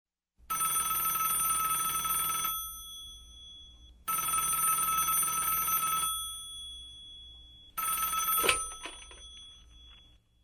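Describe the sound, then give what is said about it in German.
A telephone rings for an incoming listener call to a radio call-in programme in three long bursts with short pauses between them, clear. The third ring is cut short by a click as the call is answered. “Ja, und da habe ich auch schon die erste Hörerin in der Leitung.”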